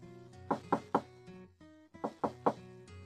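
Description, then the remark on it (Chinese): Two sets of three firm knocks on a door, evenly spaced with a short pause between the groups, sounding over a soft, steady musical tone in the background. “招聘启事刚刚贴出去，就有人来敲门。”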